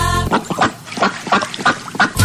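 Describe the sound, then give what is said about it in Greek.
A rapid run of nasal, raspy duck quacks, about six or seven in quick succession, fairly loud with no talking over them. “Μια πάπια, πάπια, πάπια.”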